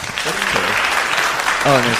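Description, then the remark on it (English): Audience applause, a dense steady wash of clapping from many hands, with voices and a brief cheer or shout rising over it toward the end. “So like the applause, because nothing sounds worse than uh, one person applauding.”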